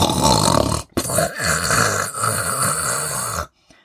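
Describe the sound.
Loud, rasping snores made by a human voice imitating snoring as someone sleeps: a short snort followed by a longer, rumbling drawn-out snore, prominent, then silence.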